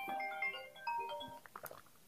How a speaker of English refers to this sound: sorry, my phone's ringing.